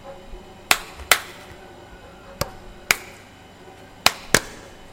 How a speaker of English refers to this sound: if you two are quite finished, the reason that, despite your very enthusiastic clapping, the lights won't turn on is because there's a power cut.